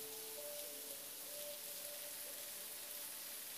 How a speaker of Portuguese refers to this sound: E a chuva está caindo, ó glória.